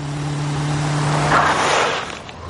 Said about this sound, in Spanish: Llega un coche.